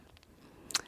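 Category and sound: animal, dog chewing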